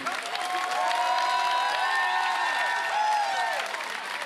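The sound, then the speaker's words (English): A crowd at a conference claps and cheers steadily for several seconds, with dense, continuous applause under many overlapping excited voices whooping and shouting at varying pitches, staying loud throughout. “Clap your hands if О, ръкопляскай, ако вярваш това.”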